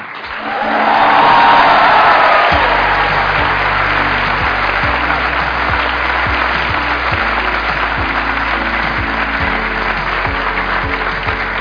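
An audience breaks into loud, sustained applause welcoming a guest, swelling within the first two seconds and holding steady, dense clapping with some cheering mixed in, no speech over it.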